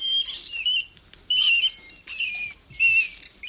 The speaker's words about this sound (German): Vor allem junge Ratten geben sehr hohe Pfeiftöne von sich, die an Lachen erinnern. Erst per Ultraschalldetektor werden sie für uns hörbar. Die Ratten geben diese Töne beim Spielen von sich und wenn sie gekitzelt werden.